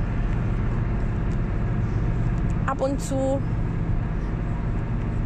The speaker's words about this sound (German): Natürlich ist, ist der Sound im Auto jetzt nicht so optimal, aber stell dir vor, du sitzt einfach neben mir im Auto.